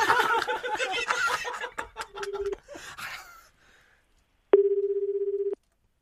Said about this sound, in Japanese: じゃあ電話かけてみましょう